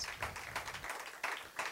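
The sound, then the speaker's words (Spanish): A church audience claps to Christ together, a dense, steady patter of many hands with a few stronger surges, fairly soft overall and with no clear voices on top. “Dale un aplauso a Cristo. Give a Christ a clap. Clap to Christ.”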